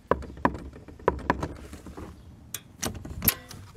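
Four sharp knocks on a closed door by a person standing in front of it, in two quick pairs, followed by a few fainter mechanical clicks like a lock catching. Fairly loud, with no talking.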